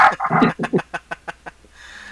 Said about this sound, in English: Oh, my dog's going off.